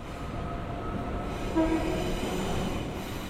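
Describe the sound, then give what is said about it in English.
Steady interior rumble of a moving passenger train on a ride home after work, with a constant low roar and faint mechanical whine, briefly punctuated by a soft clunk midway; no one speaks. “Now, let's imagine that Alan and Claire are on the train going home after work”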